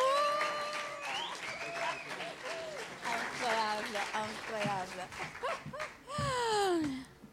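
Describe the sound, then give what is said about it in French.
An audience applauds for several seconds, the steady clapping mixed with high, sliding whoops and cheers from the crowd, swelling loudest near the end. “Wouhou, on peut l'applaudir.”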